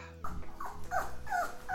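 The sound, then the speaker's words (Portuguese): A dog barks in a quick run of four or five short, yelping calls with a whiny, rising-and-falling pitch, heard alone without any talking. “Pouco tempo depois, ouviu um latido.”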